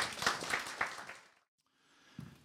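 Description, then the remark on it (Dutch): A short burst of audience applause, dense overlapping clapping with a few sharper claps, fading out after about a second and a half, then a soft low thump in the quiet. “Applaus voor je net.”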